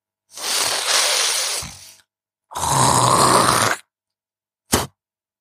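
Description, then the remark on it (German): Someone loudly hawks up green phlegm in two long, rough, guttural rasps, then finishes with one short, sharp spit flung with force at a target. No talking. “So richtig schön laut, mit grünem Glibber hochwürgen, dann auf die Zunge und mit Druck ins Ziel geschleudert.”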